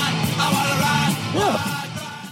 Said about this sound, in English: Okay, so now that I played this song twice, directly after Matt said, let's speed it up,